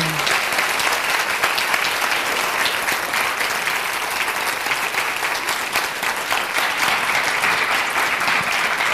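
Sustained audience applause as everyone is asked to stand and welcome a guest onto the stage at a book launch, a dense, steady wash of many hands clapping at an even loudness without pause, with no voices standing out.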